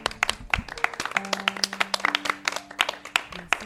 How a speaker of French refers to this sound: Ah, ça mérite des applaudissements.